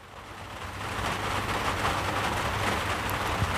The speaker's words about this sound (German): Bei mir plätschert gerade der Regen auf das Dach.